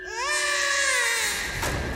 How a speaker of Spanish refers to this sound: El llanto del bebé lo sorprende antes de echarle un vistazo. Yace cubierto de inmundicia entre periódicos, tan intoxicado como todos en ese lugar.